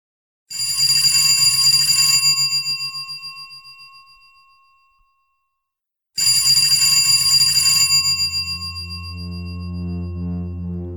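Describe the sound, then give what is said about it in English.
An old-style telephone bell next to a bed rings twice in Vienna while it is still dark, each a loud, rapidly rattling metallic burst with a lingering fade. A low sustained tone swells in under the second ring and continues afterward. “It was still dark in the Austrian capital, and he was awoken by the phone ringing next to his bed.”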